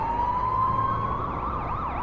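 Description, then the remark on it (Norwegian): Several ambulance sirens wail at once, heard from a bus driving toward Sagene and Sankthanshaugen, their rising and falling tones overlapping with a steady high pitch, loud over a low rumble of street traffic, with no one talking. “Eh, mot Sagene og nedover mot Sankthanshaugen, og så kommer det et voldsomt kjør av ambulanser.”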